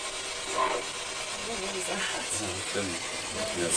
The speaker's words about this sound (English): It's called a spirit box. It is a device that scans radio frequencies with the idea that spirits can communicate through the white noise.